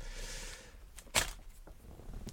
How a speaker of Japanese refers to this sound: 封筒に窓がついてて、その窓部分がね、このパラフィン紙みたいなやつになってるので、こういうまあクリンクルサウンドが、まあ、取れるわけですよね。こういうのを取りたいがために買った、えー、ショットガンマイクでございます。